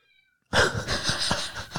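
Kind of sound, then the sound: animal, cat meowing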